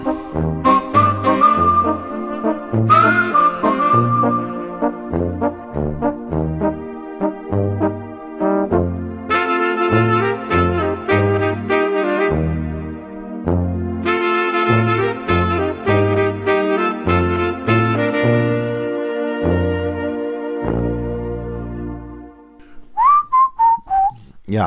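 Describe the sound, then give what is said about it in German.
A jaunty TV theme tune whistled over a bouncy band backing, with a steady thumping bass pulse and bright melodic accompaniment, playing loud and continuous for about twenty-five seconds with no talking. “Heindling mit Pfeif drauf aus der Fernsehserie Die Rosenheim Cops”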